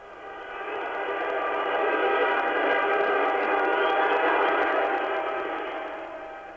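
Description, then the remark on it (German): A dense chorus of car horns honks continuously along a busy street in Tehran, Iran, as drivers celebrate after state radio officially announced the Shah's departure; many overlapping blasts merge into one loud, sustained din that swells in and fades out. “Nun, ganz schlicht, es tutet, es hupt, wie Sie bitte gleich selber entnehmen können”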